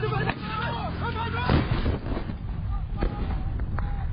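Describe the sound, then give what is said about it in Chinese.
Several sharp gunfire bursts and a louder rocket-like blast crack out at irregular intervals, mixed with shouting voices and a steady rumbling background noise, from footage of Hamas Qassam Brigades militants, in pairs on motorcycles, firing rockets at Israeli military positions during an attack on the town of Sufa in the southern Gaza area. “画面中显示，民兵是以两人为一组，骑车摩托车向以军据点发射火箭弹。”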